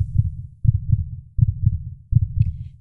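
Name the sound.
heartbeat sound effect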